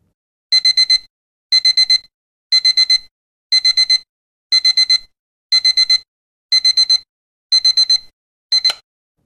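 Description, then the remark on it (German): A digital alarm clock beeps to wake a sleeper, in repeated bursts of four rapid, shrill tones, nine bursts in steady rhythm, loud with silence between them and no voices. “Dieser Ton versetzt den Schläfer in einen schockhaften Alarmzustand, der das Adrenalin nach oben schnellen lässt und ihn in die Lage versetzt, aufzustehen, sogar wenn er seiner selbst noch gar nicht bewusst ist.”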